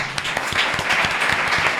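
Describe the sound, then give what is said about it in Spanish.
An audience applauds steadily, many hands clapping in a dense, even patter that stays loud for the whole stretch with no voices on top. “Aplauso.”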